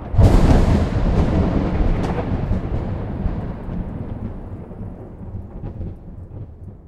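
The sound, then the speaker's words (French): A loud thunderclap cracks at the start of a thunderstorm and rolls into a long, deep rumble that slowly fades, with rain hissing steadily underneath throughout. “On retrouve exactement le même phénomène dans le ciel les jours d'orage.”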